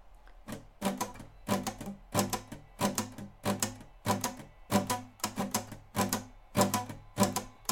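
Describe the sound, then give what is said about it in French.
A guitar strummed with a banknote tucked under the strings at the neck gives a dry, papery buzz. Steady strokes chug along in a brisk, train-like rhythm, with no voices. “il a glissé un billet de 1 dollar sous les cordes de sa guitare, au niveau du manche, et il s'est mis à jouer le rythme comme ça.”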